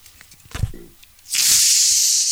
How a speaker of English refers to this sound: So I'm going to uh, crack this boy open. Let's see if everyone can hear it. Your 24 ounce plastic bottle.